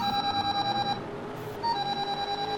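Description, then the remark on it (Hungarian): A car phone rings with a rapid, pulsing electronic trill, steady and fairly loud, pausing briefly midway before the ringing resumes. No one speaks. “Ekkor megszólalt a kocsi telefon kijelzője.”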